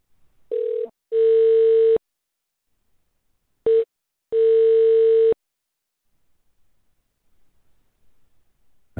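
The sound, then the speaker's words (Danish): A telephone line tone, then ringing as a call is placed to Uppsala Cathedral: a steady mid-pitched electronic beep sounds in a short pulse followed by a longer one-second tone, the pair repeating twice with silent gaps, and no voices. “Lad os se, om vi lige kan nå at ringe til dem her.”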